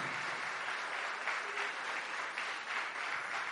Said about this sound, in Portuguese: Vocês podem aplaudir Jesus? Eu acho que ele merece até mais palmas.